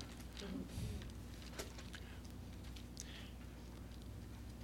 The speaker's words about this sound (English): You know, it's, it's good to have pages to hear, pages rustling.